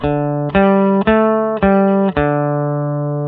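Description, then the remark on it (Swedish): A guitar string plucked five times at an even, unhurried pace, each note opening with a crisp, bright attack and sustaining loudly, the pitch shifting slightly between plucks before the last note rings out; the attack sound is compared across different strings. “lyssna på precis själva anslagsljudet för det är där den största skillnaden eh, på olika strängar är”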